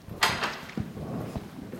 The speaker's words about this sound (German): schließt die Tür zum Glockenturm auf und steigt die steile Holztreppe nach oben in den Glockenstuhl.